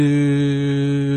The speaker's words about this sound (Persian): این صدای سوت همون صدای آبونمان ندادن به موقع دوستانه این گله